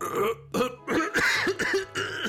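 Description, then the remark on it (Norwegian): A loud coughing fit from a man: about six harsh, throaty bursts in quick succession, each rough and partly voiced, with brief gaps between them and no talking. “fikk en skikkelig hostekule.”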